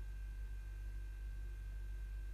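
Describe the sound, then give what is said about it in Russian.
An old refrigerator that has served its time hums steadily, a low droning tone with a faint high whine, constant and unbroken throughout, fairly quiet with no voices. “О, холодильник. Отработал свое.”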